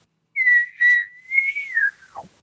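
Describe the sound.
A single imitated bull elk bugle: a loud, high whistling note held for about two seconds, wavering slightly, then sliding sharply down into a low grunt at the end.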